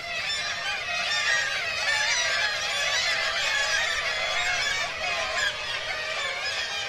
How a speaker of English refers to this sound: getting up to these really giant cliffs and hanging a boom mic over there and trying to get these shorebirds that are making this kind of intense cacophony of shorebird seagull kind of calls